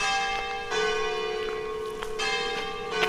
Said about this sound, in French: Et les cloches sonnent à Arc-en-Barrois. 9h30.